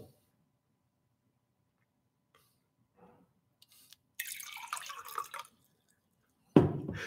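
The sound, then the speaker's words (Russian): Water pours into a glass for about a second with a bubbling splash, followed by a sharp clunk. There is no talking, just quiet room tone around it. “Смелее, смелее вопросы задавай, водичку наливай.”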